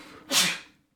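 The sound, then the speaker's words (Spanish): A single sharp sneeze bursts out with a bright, hissing spray of air, rising quickly and fading over about half a second into silence. “Salud.”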